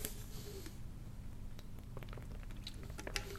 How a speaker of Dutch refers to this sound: Ik neem even een slok water als ik het toch heb.